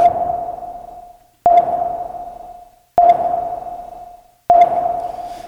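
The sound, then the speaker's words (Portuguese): A short radar segment jingle of sonar pings: four sharp pings at a steady pace about a second and a half apart, each ringing out and fading before the next, with no voices. “É, eu acho que talvez com essa musiquinha você possa decorar ele.”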